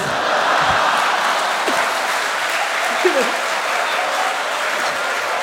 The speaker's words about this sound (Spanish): Este fue el primer programa, señores. Mucho, un fuerte aplauso, fuerte aplauso para ustedes. ¡Fuerte palmas!